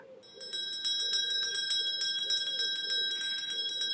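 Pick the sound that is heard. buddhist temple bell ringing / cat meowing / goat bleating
buddhist temple bell ringing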